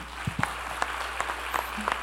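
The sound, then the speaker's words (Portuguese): An audience applauds together in praise of the Lord for the lives of those being honoured, a dense, steady patter of many hands clapping at moderate volume, with no voices standing out. “Vamos aplaudir o Senhor pela vida deles?”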